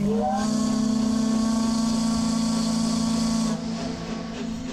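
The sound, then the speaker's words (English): A steamer's steam whistle sounds one long, deep, steady blast with rushing steam hiss, loud, as the steamer ends a voyage around the Pacific Northwest, then cuts down to a softer hiss near the end. No one speaks. “That sound means the steamer Columbia has reached the end of another thrilling voyage around the Pacific Northwest.”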